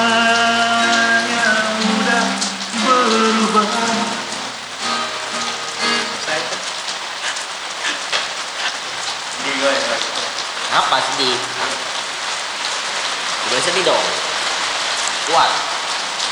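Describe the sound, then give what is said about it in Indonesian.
Steady rain pattering on a hard surface, a dense continuous hiss of drops that stays fairly loud throughout, with muffled voices faintly audible beneath it early on. “Jadi ini karena hujan juga mungkin suara kita jadi kurang terdengar.”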